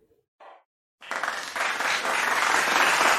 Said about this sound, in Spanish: Muy bien, ahí. Aplausos ahí medio pedorros, pero bueno.